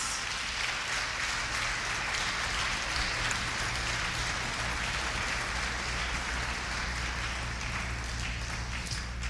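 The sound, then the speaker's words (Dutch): An audience applauds steadily for several seconds, a dense, even wash of clapping that stays loud throughout without a clear rise or fall, with no voices heard. “Come on, we kunnen hem een applaus geven.”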